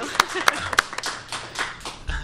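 Hands clapping: three sharp, loud, evenly spaced claps open, followed by a looser patter of softer claps that fades over the next second or so.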